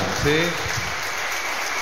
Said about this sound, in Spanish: Qué bueno, ¿cómo le dice la iglesia? Reciban este aplauso de bienvenida.